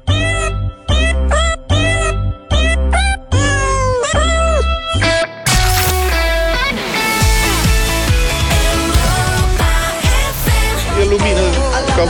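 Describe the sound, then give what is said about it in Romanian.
A rapid series of loud cat meows with rising and falling pitch, about seven or eight in a row, followed by a dense, busy wash of overlapping sound that continues to the end. “L-au trimis înapoi cu pisici cu tot.”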